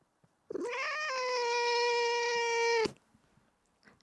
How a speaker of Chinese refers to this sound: 这是我们家的猫，它现在卡在我的谱跟我的电脑上面，像我非常难作业。要拿谱，他还要咬我。